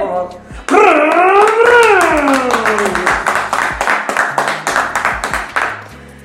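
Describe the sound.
A steady run of sharp hand claps applauding a section of the program, evenly paced and fairly loud, lasting several seconds; a drawn-out voice rises and falls in a whooping cheer over the first half.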